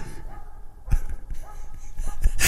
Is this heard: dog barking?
yes